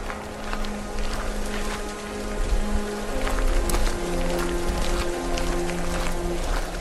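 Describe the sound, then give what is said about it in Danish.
Steady rainfall at night pattering across the courtyard of a village assembly hall, a continuous dense hiss with scattered drop impacts, accompanied by low sustained tonal hums throughout. “Ud i regnen og mørket sniger to skikkelser sig ud på gårdspladsen”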